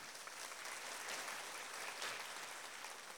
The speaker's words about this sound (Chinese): 我们把掌声归给神好吗？